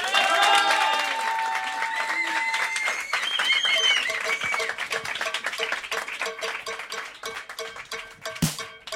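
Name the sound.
audience applause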